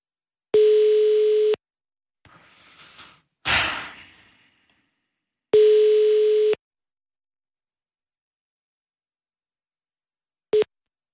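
A phone line rings back as an outgoing call connects: two steady one-second tones about five seconds apart, then the clipped start of a third, with a breathy rustle and a knock in between.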